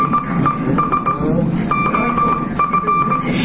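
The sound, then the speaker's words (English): Steady tone beeps of Morse code from a ship's wireless radio, short dots and longer dashes at a single high-mid pitch, tapping out messages in irregular rhythm over a dense background hum and rumble. “Marconi company staff ran the ship's radio room and wireless operators turned messages into Morse code by translating each letter of the alphabet into a series of dots and dashes.”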